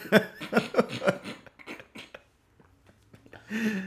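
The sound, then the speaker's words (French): A burst of harsh, repeated coughing and throat clearing after nearly choking, loud, tapering into scattered rasping breaths and a final rough clearing of the throat. “J'ai failli faire euh, étouffer et tout festif.”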